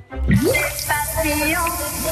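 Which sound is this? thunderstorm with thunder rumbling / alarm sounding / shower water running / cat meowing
shower water running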